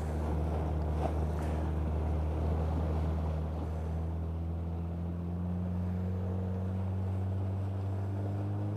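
An old boat motor on Lake Saimaa, which is hard to start in the morning, runs with a steady, loud, low droning hum and slight shifts in pitch, with wind noise buffeting the microphone throughout and no voices.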